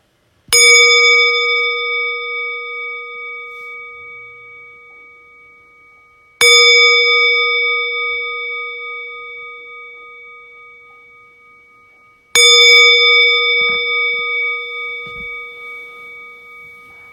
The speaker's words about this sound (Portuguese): Então, como eu falei, eu vou convidar o sino a soar três vezes para começar o período e uma vez para terminar.